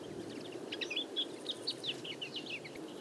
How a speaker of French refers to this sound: côté nature, observation sonore, la linotte mélodieuse